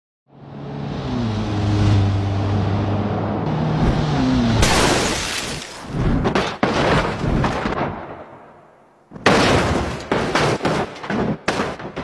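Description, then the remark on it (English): In a computer-rendered animation, a car engine hums and revs steadily as the car drives down a highway, then loud crashing impacts erupt in a rapid series of smashes and metallic bangs as it drives into two giant sledgehammers rotating quickly over the road, pause briefly, and resume with more heavy collisions. “Okay, it's like a computer rendering of a car driving down a highway.”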